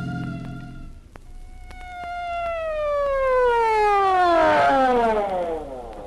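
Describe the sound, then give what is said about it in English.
An emergency vehicle siren wails, its loud tone sliding steadily downward in pitch, with a low engine-like rumble and a few sharp clicks at the start, as the vehicle responds to an alarm call to Pine Street on a remote road. “So why the siren?”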